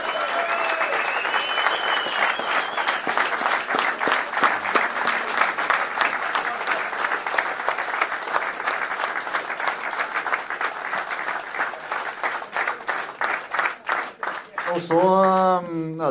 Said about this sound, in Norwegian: og crew bakpå, så gi dem en klem. For det er helt fantastiske folk. De har gjort oss så sinnssykt mye i helga her. Eh, og har vi ikke hatt, uh, hatt med dem, så har det bare Ja, det har jo gått til skogen. Så stor applaus til dem, vær så snill.